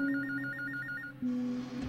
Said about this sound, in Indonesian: Jam 8 malam ada telepon masuk ke pusat.